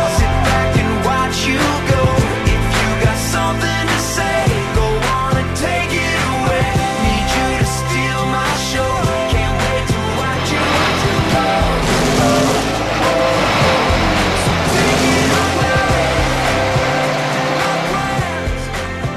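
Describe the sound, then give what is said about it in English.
A loud, full music track, a special NASCAR edition of a song, plays throughout, with the roar of race car engines taking off and accelerating mixed into the song, blending continuously with the instruments. “That's the special NASCAR edition of that song that I that I mixed together so we could hear the race cars taking off.”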